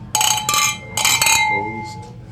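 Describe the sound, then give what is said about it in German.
Glasses clink together in a toast, two bright ringing clinks about a second apart, each leaving a shimmering tone that fades out while a faint voice murmurs near the end. “Und ich sage Prost, die Herren.”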